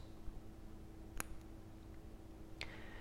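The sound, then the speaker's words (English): Two crisp, small mechanical clicks from the pusher at two o'clock on a Chronostop wristwatch, a single-pusher one-minute chronograph, starting the chronograph, about a second and a half apart, the second leaving a faint brief ring, over a quiet steady hum with no talking. “So if you start the chronograph, and I'll start it here for you guys.”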